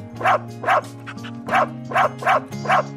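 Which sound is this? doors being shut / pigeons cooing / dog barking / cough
dog barking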